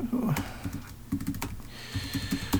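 Quick keyboard typing of the root (system administrator) password during system setup, entered twice and followed by Enter: a run of short, sharp clicks in an uneven rhythm with brief pauses between bursts, moderately quiet, with no voices over it.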